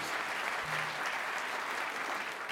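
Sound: applause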